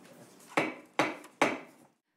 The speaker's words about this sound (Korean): 그 어수선한 분위기에서 시작된 회의. 10분 그 만에 더불어민주당 소속 위원장이 의사봉을 들었습니다.